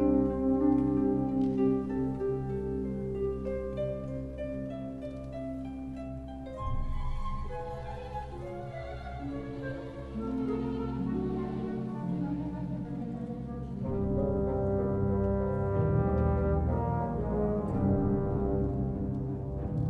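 An orchestral passage where brass horns sound a call motif in sustained, loud low notes over a full ensemble, with the chords shifting in broad phrases and no voices.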